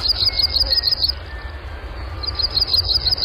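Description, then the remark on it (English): A Blackburnian warbler (Setophaga fusca) sings a rapid run of very high, thin notes, then after a short pause repeats the run, clear above a steady low outdoor rumble. “The black Burnian warbler, Setophaga fusca, Phoebe Snetzinger's sparkbird, and today's Talking Birds featured feathered friends.”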